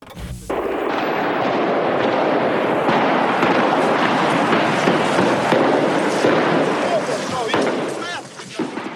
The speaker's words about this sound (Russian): 20 января рижские ОМОНовцы штурмуют здание МВД. Латвийцы готовы встречать их в забаррикадированном старом городе. Начинается стрельба.